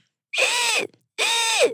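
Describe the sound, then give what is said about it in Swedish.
A person imitates a toad call with two raspy, buzzing croaks, each about half a second long, separated by a short pause. Both are loud and stand alone without other talk. “Visste du att paddor låter? Ja. Hur låter de? De skriker typ. Uh, gör ett läte som du Nej. tror.”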